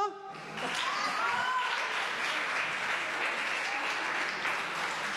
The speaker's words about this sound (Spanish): Ok, un fuerte aplauso.